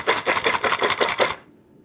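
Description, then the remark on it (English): Dry, chalk-like dehydrated turkey cubes about half an inch across rattle inside a jumbo-sized can, shaken in a quick, steady rhythm of about six fairly loud bursts before the shaking stops and silence follows. “sounds like Lucky Charms, kind yeah.”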